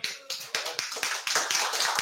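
An audience applauds, many hands clapping in a dense, steady patter of sharp claps that builds slightly and holds for a couple of seconds, with no voices.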